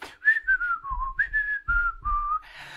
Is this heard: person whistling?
yes